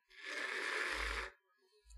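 One raspy snore: a breathy, rattling inhale with a low buzzing flutter near its end, fairly soft. It is followed by a brief pause and the start of another low rumble.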